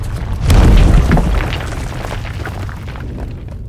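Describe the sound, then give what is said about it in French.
A gigantic stone ball tumbles from the ceiling and slams down against a doorway just after children run through it. The crash is heavy, booming, loud and rumbling, with gritty debris clatter that slowly trails off into a fading low rumble. No one speaks. “Ils s'y engouffrent juste avant que la boule ne s'y écrase avec fracas.”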